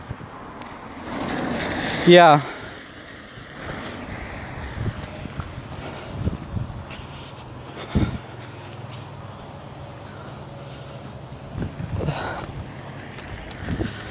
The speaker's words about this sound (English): It's, there's puddles and their cars are driving by the puddles. And luckily they haven't splashed me yet, but it's like fuck, man.